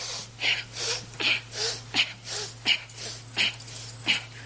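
A person breathes audibly in and out through the nose, about eight breaths in a steady rhythm, fairly loud, with no talking and a low background hum.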